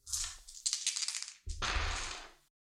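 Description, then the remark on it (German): Small hard objects rattle and clatter together, a brief shaking followed by a louder tumbling roll across a surface, as three dice are rolled for a tabletop game's death chart, with no voices. “Es gibt drei Bereiche, du würfelst dreimal mit drei Würfel. Oder ich würfel für dich.”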